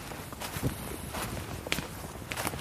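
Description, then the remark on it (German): Footsteps crunch steadily through forest ground at the Berlin city limits as someone walks further into the woods, several paced steps with soft rustling of leaves and twigs underfoot, no voices. “Ich würde noch ein bisschen weiter reingehen.”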